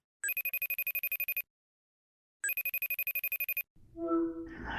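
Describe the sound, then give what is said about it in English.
A telephone rings twice, each burst a rapid, trilling bell lasting about a second with a pause between, followed by a muffled rustle or pickup noise. “So come spend a few minutes on the phone with me”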